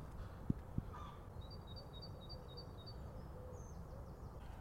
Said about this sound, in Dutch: Dat is hem. Oeh, is dat de lijn? Dat is de zanglijster. Kijk, daar gaan we lekker naartoe lopen. En dan gaan we daaronder staan en dan ga, ga je echt genieten van een van de mooiste geluiden van de Nederlandse natuur.